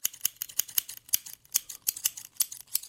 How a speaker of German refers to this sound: schwang die Schere in großen Bögen und vollführte einen Scherentanz.